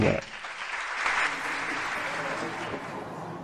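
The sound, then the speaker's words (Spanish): Steady audience applause welcoming two guests, a dense crackle of many hands clapping at once, holding at an even loudness for a few seconds with no voices standing out. “Así que para que ellos mismos les cuenten a ustedes un poco eh, su historia y su parte profesional, quiero darles con el aplauso de todos la más cordial bienvenida”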